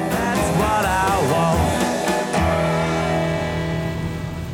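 Steady, loud rushing noise inside a moving car in the rain, a constant wash of road and rain sound, with some wavering tonal hums in the first couple of seconds and no talking.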